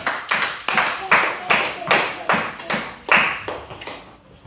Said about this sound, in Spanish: Palmas al Rey de Reyes, hermano. Gloria a Dios.